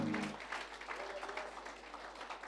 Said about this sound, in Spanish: Más fuertes aplausos de alabanza para el Señor.